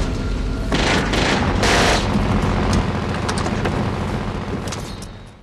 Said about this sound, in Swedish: Eh, Sanchez skjuter kulspruta mot, eh, mot Bond som är på tankbilen. Då skjuter han i Bondtemats toner.